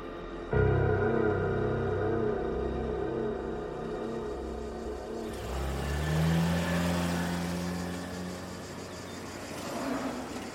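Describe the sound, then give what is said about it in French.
A 4x4 vehicle's engine drones steadily as it drives along a road toward the village of Oretsa in the northeast of the island, around 7 a.m. on 15 November 2009, its hum rising and falling as it revs, with road noise underneath and no voices. “Plusieurs mois plus tard, le 15 novembre 2009, vers 7 heures du matin, un homme, au volant de son 4x4, roule en direction du village d'Oretsa, au nord-est de l'île.”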